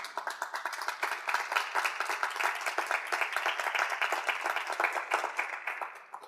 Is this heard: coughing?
no